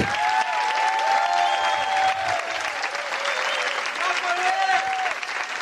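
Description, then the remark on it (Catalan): Sustained audience applause fills the whole stretch, a dense, steady clatter of many hands clapping at an even loudness, with cheering voices and whoops rising faintly through it, as a jury member of a Got Talent-style show is introduced. “així que fora aplaudiment, plau”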